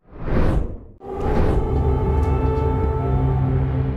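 Air raid sirens hold a steady, droning wail across Kyiv, Ukraine, during a Russian attack, preceded by two brief rushing whooshes; the tone fills the space, with no one speaking.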